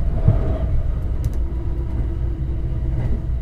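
Steady low rumble inside a carriage of the Cassiopeia night limited express sleeper train running toward its terminus at Ueno, Japan, a continuous droning roar with faint rattles and brief higher squeaks, no voices.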